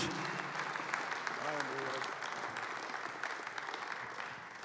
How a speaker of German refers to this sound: Lasst uns einen großen Applaus geben.